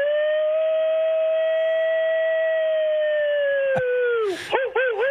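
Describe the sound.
A person imitates a coyote's howl, showing what a coyote sounds like, though it sounds more like a wolf. One long, loud, steady note is held for about four seconds before it drops and wavers into a few short yips at the end.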